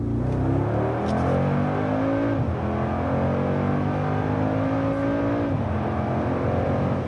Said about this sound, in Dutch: Ja, dat klinkt niet slecht, hè, dat gebulder van deze V8. Voor het eerst ligt dit blok dan ook in de G-klasse, 4 liter groot. Vermogen komt eh, uit op 585 pk met een maximum koppel van 850 Nm.